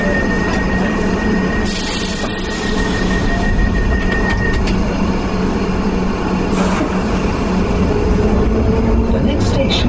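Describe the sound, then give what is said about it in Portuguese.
A London Underground Piccadilly line train rumbles loudly and steadily at a platform, with metallic high-pitched squeals and an electric hum running through, while muffled voices sound faintly beneath the din. “Piccadilly line service to Hocklosters. Please stay clear of the doors.”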